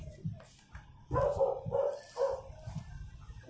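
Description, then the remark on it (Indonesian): A dog that has gone outside barks a few times in a quick cluster, the yaps sounding muffled against a low background rumble, with no one talking. “ya anjing gue itu keluar gonggong -gong.”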